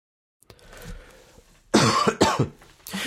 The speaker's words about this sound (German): Und nein, ich schneide nicht jeden Huster raus, weil dann bin ich hier.